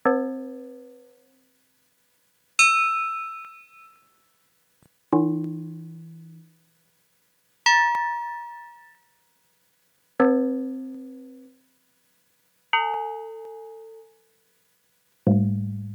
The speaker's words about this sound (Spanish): es lo que es, esto es lo que es fantástico del FM. O sea, necesitas 11 osciladores para hacer un sonido de una campana. Por eso, por eso es casi que imposible.